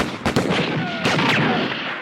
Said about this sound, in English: Front Street had been peaceful before the gunplay erupted. The busy pedestrian boardwalk was now abandoned. A lot of bullets were flying through the air back and forth across the railroad tracks.